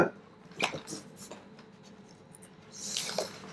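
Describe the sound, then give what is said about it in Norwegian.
Paper pages being flipped: a few soft, crisp rustles come at irregular moments, separated by quiet stretches, with a slightly longer papery swish near the end. “Nå ble det stille her mens jeg blar, eh, kjenner jeg.”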